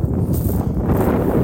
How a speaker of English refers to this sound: Excuse the wind